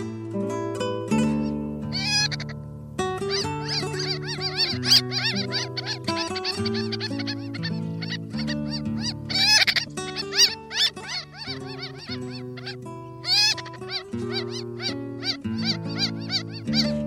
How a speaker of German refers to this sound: Das war die Rosenmöwe.